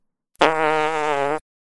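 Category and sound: human body sound, fart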